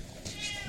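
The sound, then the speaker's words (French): A pet cat meows once in a short, drawn-out cry, clear, with no one talking over it. “oui, si vous entendez, c'est notre chat qui est là.”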